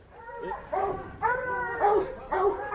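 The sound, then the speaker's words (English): Several hounds bark and bay at dog kennels in overlapping, drawn-out bursts, roughly five volleys in quick succession, loud with no talking. “We're now out by the dog kennels.”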